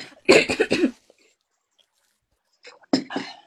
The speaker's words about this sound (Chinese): 我也感冒了。 让我咳嗽一下。